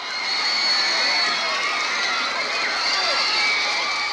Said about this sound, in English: what boy band do you think these fans are cheering for?